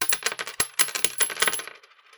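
Marbles tipped out onto the center of a hard floor, a dense burst of glassy clicks and clatters that scatter and thin out into a soft rolling rattle after about two seconds.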